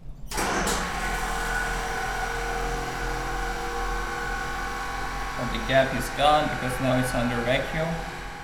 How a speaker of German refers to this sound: Entsprechend knattert die Pumpe